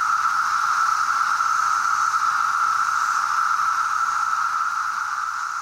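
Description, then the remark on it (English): A dense mass chorus of periodical cicadas forms a loud, unbroken droning hum that holds steady throughout, easing only slightly near the end, with no voices present. “there's that deafening sound the the noise kind of comes in waves.”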